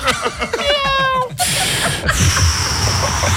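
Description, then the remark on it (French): A person imitates a cat with a drawn-out, wavering meow, close and fairly loud, followed by a stretch of breathy, hissing noise. “C'est pourquoi, pendant les cinq prochaines secondes, je vais faire le bruit d'un chat qui fait le trottoir et qui fume une clope.”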